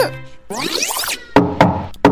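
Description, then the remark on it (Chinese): A swirling, sweeping sound effect gives way to three hard, hurried knocks on a door, each a sharp wooden thud with a ringing body, loud and uneven in spacing. “一阵急促的敲门声。”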